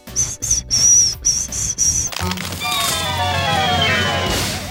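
Failed whistling attempts by two people: a thin, high tone that keeps breaking up amid breathy puffs, then a longer airy, hissing blow with only faint, wavering pitch, fairly loud.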